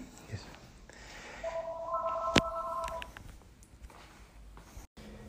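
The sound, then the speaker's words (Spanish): A phone's electronic ringtone, an incoming call during a lecture recording, sounds for about two seconds, steady and moderately loud, with a sharp click partway through over faint room hiss. No one speaks. “Les pido disculpas, este, esta sería la segunda parte del endoso, justo me llamaron por teléfono y tuve que, cortar la grabación.”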